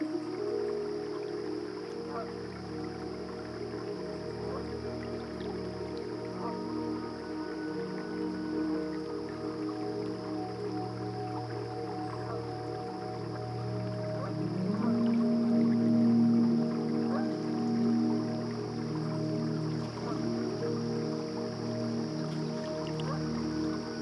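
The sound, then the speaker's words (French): Flowing river water murmurs in a steady, continuous rush, with a low rumbling undertone and a slight swell in loudness around the middle before settling back. “La rivière est, est devenue vraiment comme un, un, un discours que, que je pouvais écouter.”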